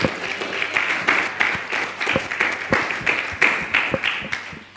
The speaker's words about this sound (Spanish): Oh, dele ese aplauso al Señor.